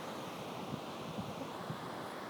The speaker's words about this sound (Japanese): あんまりなんかベンチとかないし落ち着くところがないので風がボーボー言ってるかもしれませんね。